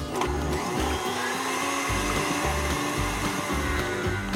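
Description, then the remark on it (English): An electric mixer whirs steadily, beating egg whites in a bowl until frothy for a meringue, with a rhythmic low churning pulse under the constant high motor hum. No one speaks. “And now I'm gonna get them frothy.”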